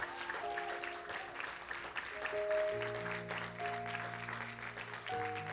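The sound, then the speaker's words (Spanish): A church audience applauds the Lord steadily and densely for several seconds during a service, a continuous wash of many hands clapping while sustained organ-like keyboard chords hold and shift underneath. “¿Puede darle un aplauso al Señor mejor que eso?”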